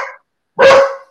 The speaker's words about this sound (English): oh, I hear a puppy. That's that's, that's the dog saying hello. He's all right.